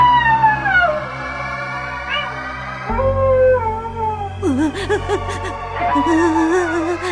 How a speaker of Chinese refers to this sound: 正得意洋洋的小黑点突然听到野狼的嚎叫声，吓得发抖。